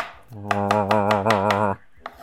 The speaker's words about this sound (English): First off, I'm going to do my specialty pie RA, which is a pie with real apples. That's the RA part. Uh, so I get my apples and I dice them here, uh, just in front of you right now.